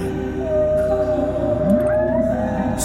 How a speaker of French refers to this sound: De plus, lorsqu'une baleine est malade, les autres se mettent en cercle autour d'elle et se mettent à chanter.